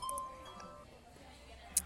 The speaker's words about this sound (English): That was a phone alarm that was meant to wake me up. Don't worry about that, anybody who's listening.